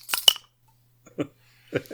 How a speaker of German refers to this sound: Ich muss auch schnell mein Bier aufmachen